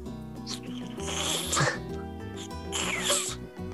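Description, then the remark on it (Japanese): A person makes two short, muffled, breathy hisses, like a blocked 'th' made with the tongue bitten between the teeth so the air cannot get out, spaced about a second apart over a steady low humming background. “でえっとですねこれ舌を噛んでしまうとうまく音が出ないんですよね”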